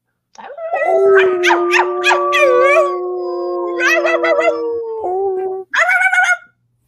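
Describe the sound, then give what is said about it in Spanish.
Several dogs on a moor howl at the moon together in long, overlapping, wavering cries that rise and hold steady, broken by short yelping bursts, loud for about six seconds. “En el páramo los perros aullaban a la luna.”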